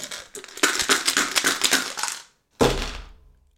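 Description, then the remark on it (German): Six dice rattle rapidly inside a dice cup for about two seconds, a dense rattle, then after a brief pause comes one hard thunk as the cup slams down, ringing out briefly. “Und wenn ich jetzt hier diese sechs Würfel gewürfelt habe, dann, wenn du jetzt versuchen wollen würdest zu erraten, was ich gewürfelt habe, hast du keine andere Wahl, als zufällige Zahlen oder anzufangen durchzuzählen.”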